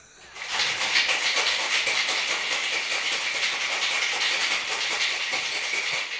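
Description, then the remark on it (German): A cocktail shaker is shaken hard with ice for about six seconds, a loud, steady, fast rattling clatter with no one talking. “Kurze Shaking-Pause.”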